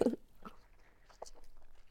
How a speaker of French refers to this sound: Je m'engage en croquant dans ce citron.